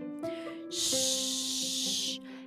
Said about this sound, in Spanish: De repente em-, la, estufa empezó a hacer un ruido extraño. y Eran las manzanas que empezaban a cocinarse.